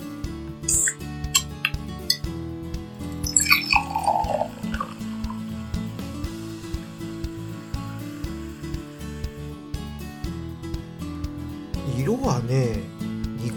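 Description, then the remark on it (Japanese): A can of fruity Australian beer in an American East Coast style opens with a quick snap and hiss, followed by beer splashing and trickling into a glass, with a voice and a steady low hum continuing underneath. “うーんこれはね期待高まっちゃいますねもうこれはねもう飲みましょう缶を開けます”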